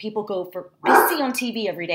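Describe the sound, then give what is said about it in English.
A dog named Hershey lets out a loud, short burst of barking midway through, in the background, while a person keeps talking over it. “Hershey's saying hi if you can hear him in the background.”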